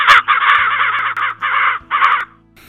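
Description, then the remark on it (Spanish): Several loud, harsh crow caws in quick succession, raspy, in three or four bursts with brief gaps, fading out at the end. “qué delicia escuchar a tus amigos los cuervos”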